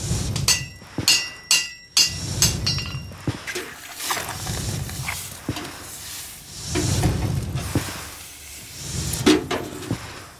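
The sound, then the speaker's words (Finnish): Typewriter typing: a rapid, uneven run of sharp mechanical key strikes, with bursts of clacking alternating with brief pauses and occasional heavier thumps, fairly loud throughout with no voices. “Ja ne rytmit vaihtelee koneesta toiseen.”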